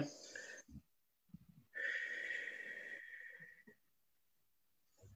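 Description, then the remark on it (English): Heavy, forceful breaths during a deep breathing exercise of five repetitions: a long rushing inhale followed by sharp exhales, repeated with short pauses between, loud and airy with no talking. “so breathing in this way, first of all, begins to deepen the breath it helps oxygenate the blood, and it helps to activate the parasympathetic nerve.”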